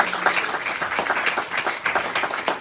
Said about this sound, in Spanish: Dar un aplauso a Dios en esta mañana.